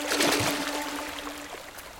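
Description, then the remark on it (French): A steady rush of falling water from a waterfall, with a dense hiss that holds for the whole stretch and a faint low hum beneath it. “Main dans la main, le frère et la sœur franchissent la cascade.”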